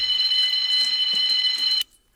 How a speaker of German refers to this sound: Ob Sie wohl zunächst diese Alarmanlage abstellen könnten, Sir?